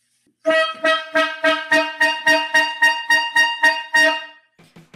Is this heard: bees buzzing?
no